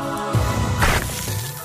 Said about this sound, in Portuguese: Isto é o som de um galho a bater?